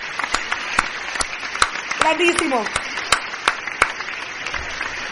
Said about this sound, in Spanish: Aplauso, Oscar. Grande.